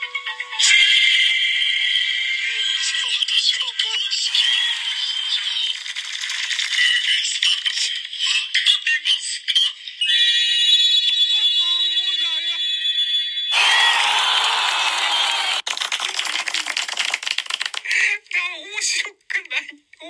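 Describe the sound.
A rattling, jingling electronic lottery-draw effect from a random lottery in a Radiotalk stream, recorded when a rare item was drawn three times in one hour, with bright ringing, alarm-like tones, running continuously and loudly for about twenty seconds in bursts, with faint voices mixed underneath.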